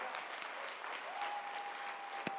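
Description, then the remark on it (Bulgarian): Steady audience applause, a dense wash of many hands clapping at an even level, with a faint sustained tone running underneath and one sharp louder clap near the end. “О, хайде, ако ръкопляскаш, ръкопляскай, като че наистина вярваш.”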